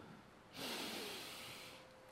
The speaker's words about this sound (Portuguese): Inspiro e expiro, isso é o hausto.